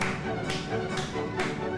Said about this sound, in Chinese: 啊，没错，这个在维也纳的新年音乐会有个传统，就是听这首曲的时候，观众会跟着一起拍手，就这样。